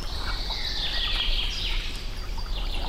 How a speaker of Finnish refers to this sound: Peukaloinen on parhaiten äänessä. Se on hieno lintu. Euroopan toiseksi pienin. Pituutta 10 senttiä.